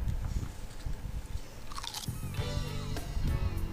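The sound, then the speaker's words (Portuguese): A boy chews food, with wet, crunchy bites repeating in an uneven rhythm; no one speaks. “Caralho, essa captação de som do, do moleque mastigando.”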